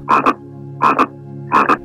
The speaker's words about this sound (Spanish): La lluvia, oyendo al sapo, comenzó a caer de nuevo. El sapo dejó de cantar